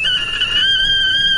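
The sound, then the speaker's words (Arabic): An electric water kettle coming to the boil gives off a loud, steady high-pitched whistling whine that holds continuously, dipping slightly in pitch partway through, with no voices. “فهذا الصوت اللي سمعته هو صوت غلايه المويه او المعروف بالكافيتيريا”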